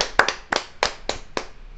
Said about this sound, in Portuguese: É, um salve de palmas pra todas essas pessoas. Aê!